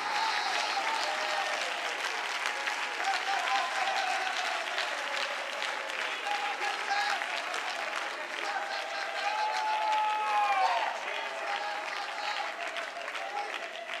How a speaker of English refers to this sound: Oh, somebody clap your hands if you believe it.